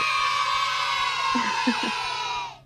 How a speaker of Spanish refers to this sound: No, eso no es un aplauso, eso es un, eh, es un griterío.